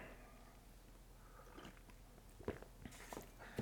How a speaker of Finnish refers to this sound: Hörppy kahvia väliin.